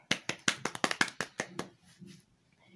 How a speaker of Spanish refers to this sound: Un aplauso.